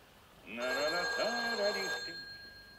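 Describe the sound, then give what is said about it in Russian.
A telephone rings in one steady electronic burst lasting about a second and a half, clear, while a voice sounds over it at the same time. “Дронов оторвался от работы, протянул руку к телефону”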